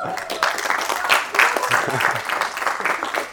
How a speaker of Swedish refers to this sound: En applåd.